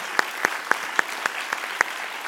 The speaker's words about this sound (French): Euh, vous pouvez applaudir hein, si vous voulez, parce qu'il y avait beaucoup de monde.